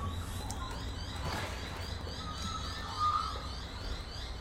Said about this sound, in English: Oh, wow. Can you hear them? God, I hope you can hear the birds. You might hear the traffic too.